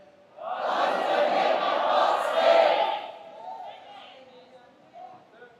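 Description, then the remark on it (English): A large group shouts together loudly for about two and a half seconds on request, saying "God's going to make my path straight", a dense swell of many voices that then drops away, leaving a quieter murmur and a single voice continuing. “Shout it as loud as you can.”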